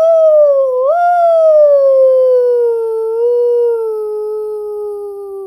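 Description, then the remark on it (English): A voice imitates a wolf howling: one long, loud, sustained howl that rises briefly, then slowly slides downward in pitch and fades a little over about five seconds, with no other sounds. “ooh, cried the wolf.”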